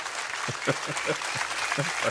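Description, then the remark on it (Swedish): Audience applause, a steady wash of many hands clapping at moderate loudness throughout, with a few voices faintly audible underneath. “Eh, mer applåder till mig, tack.”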